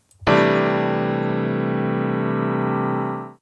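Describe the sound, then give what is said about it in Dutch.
A single sustained piano chord, a C6/9, struck once with a sharp attack and held for about three seconds, its rich layered tones ringing steadily before cutting off. No one speaks. “Ja, dit klinkt als een gewoon pianoakkoord.”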